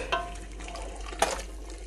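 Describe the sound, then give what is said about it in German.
Water runs from a tap into a pot for a clear chicken broth, filling until the contents are just covered, with a steady, soft rushing hiss, broken by a couple of brief clinks or splashes. It sounds fairly quiet, and nobody speaks. “Dann fülle ich das Ganze dann eben mit Wasser, so dass das gerade bedeckt ist.”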